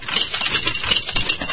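A coin drops into a jukebox and rattles through its workings, a steady bright metallic clatter with quick little ticks, fairly loud and with no voices over it.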